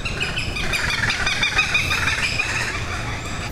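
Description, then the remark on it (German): A goshawk calls repeatedly in sharp, high, strained cries that run together as it more or less attacks a person, set over a steady low rumble of background noise. No one speaks. “ich bin hier von einem Habicht äh, mehr oder weniger angegriffen.”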